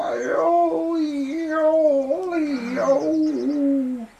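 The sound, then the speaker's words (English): A voice imitates a hyena singing loudly: one sustained, wavering howl that rises and falls in pitch for about four seconds, strong, with nothing else around it. “On hot days, the zebras and the springbok often heard the hyena singing.”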